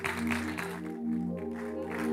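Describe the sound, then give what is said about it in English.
A church audience claps their hands for the young people and musicians in a steady, dense wash of applause, layered over sustained instrumental chords that hold throughout. “Ah, if you're not jealous, let's clap our hands for them.”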